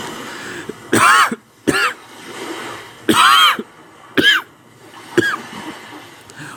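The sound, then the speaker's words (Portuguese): A loud coughing fit from a person with an itchy throat: five harsh, rasping coughs in uneven bursts, some doubled, with throaty clearing sounds and short pauses between them. No talking. “Sinto uma coceira na garganta, o que me faz tossir.”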